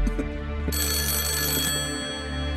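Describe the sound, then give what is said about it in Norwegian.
A telephone rings loudly, a steady, tonal trill with a brighter burst of ringing in the middle, and no voices. “Banken tar telefonen.”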